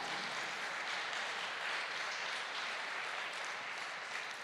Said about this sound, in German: Lass uns Gott mal einen Applaus geben.